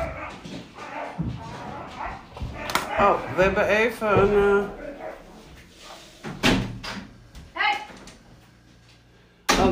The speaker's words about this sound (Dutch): we hadden even een hondengevechtje tussendoor. Dat kan natuurlijk ook weer gebeuren.